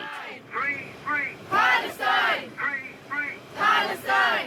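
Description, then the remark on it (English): A loud, boisterous crowd on a London subway train, on its way to a pro-Palestinian rally, chants a short slogan in rhythmic bursts, voices rising and falling together, with brief pauses between each shouted phrase; the train conductor leads the "free, free" chant over the PA system. “This is the sound of a sort of boisterous crowd on a London subway train on their way to a pro Palestinian rally last week.”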